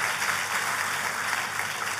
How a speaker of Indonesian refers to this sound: Tepuk tangannya yang paling meriah buat Allah yang mengerjakan itu.